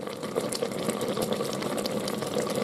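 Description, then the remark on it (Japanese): A pressure cooker simmers on a portable cassette gas stove, stewing food, giving a steady, loud hissing rush with a fast, fluttering bubbling texture that never lets up. No one speaks. “圧力鍋を使ってこのガスコンロを使ってですねカセットコンロで煮込んでます”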